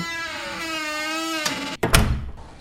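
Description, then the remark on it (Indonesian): A cupboard door creaks in a long, wavering groan as it swings slowly shut, ending in a soft, muffled thud, with no voices present. “Cahaya biru yang samar-samar lalu menutup pintu lemari itu pelan-pelan.”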